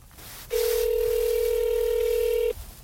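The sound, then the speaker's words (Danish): A phone call to the Danish Social Democrats' press service rings out on the line: one steady, loud ringback tone held for about two seconds before cutting off, with no voices. “Lad os også bare lige prøve at ringe til Socialdemokratiets pressetjeneste.”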